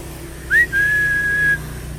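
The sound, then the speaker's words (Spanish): A person whistles a two-part call to a pet: a quick rising chirp, then one long, steady high note held for nearly a second. The whistle is clear, with no talking. “Esa es la señal, ese silbido.”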